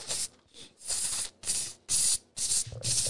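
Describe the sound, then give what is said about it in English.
A voice imitates sprinkler-like hi-hats with a rapid run of sharp, hissing "tss" bursts, about six in a choppy rhythm, fairly loud with no other sounds. “and, and fucking hi hats that sound like sprinkler systems.”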